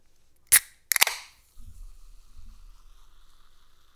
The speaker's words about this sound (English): Also, I forgot. We need to open a Dr. Pepper if you haven't.